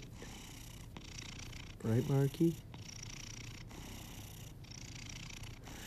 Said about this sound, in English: He's a little tiger. Hi, little dude. And he is such a loud purr. Sometimes you can just even just look at the guy and he and he just starts purring.